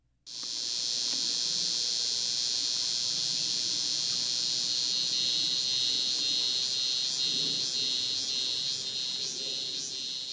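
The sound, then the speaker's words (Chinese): A Taiwan cicada sings a continuous, high-pitched mechanical buzz that holds steady, then breaks into a rapid pulsing rhythm in the second half, loud and unaccompanied by any talking. “首先呢，我们就来听听看台湾雄蝉的叫声。”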